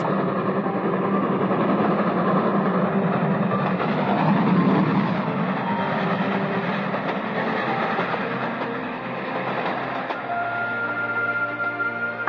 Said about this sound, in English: And they heard the roaring thunder of a third brilliantly lighted express.